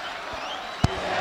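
A stadium crowd of Grêmio fans chanting "Renato" at the Estádio do Vale after Grêmio's 4–0 win over Novo Hamburgo, heard as a steady, dense roar of many voices over about a second, with one brief low thump partway through.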